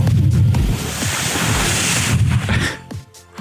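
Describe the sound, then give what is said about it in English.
A loud, rushing whoosh of airy noise, a sound effect standing in for a pendulum swinging in the opposite direction, sweeps steadily for nearly three seconds before dropping off abruptly. No one speaks. “Well, that would be the sound effect of the pendulum swinging in the opposite direction because I couldn't find that effect on YouTube.”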